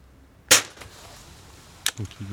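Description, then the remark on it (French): A single sharp gunshot crack, fired at a pigeon, with a short decaying tail, then quiet. About a second later comes a brief second snap, followed by a few soft low thumps at the end. “Le premier qui va être tiré.”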